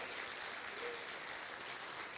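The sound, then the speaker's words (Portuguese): A crowd claps steadily and evenly, applauding to the name of Jesus Christ, a dense wash of many hands applauding together at a fairly loud, constant level with no clear voices over it. “Você pode aplaudir ao nome de Jesus Cristo.”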